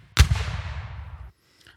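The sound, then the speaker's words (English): A single loud cannon blast with a sharp, booming onset and a rumbling low tail that rolls on for about a second before cutting off, followed by near silence. “Last cannon blast, and we're out of here, folks.”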